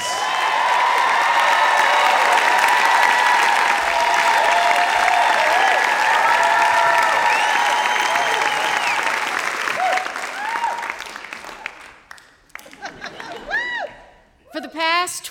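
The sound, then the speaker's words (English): A large audience in the Music City applauds loudly and steadily to welcome the next storyteller, with scattered whoops and cheers mixed in. The clapping fades after about eleven seconds, and a single voice begins speaking. “You can hear by the audience reaction that she is beloved in the Music City.”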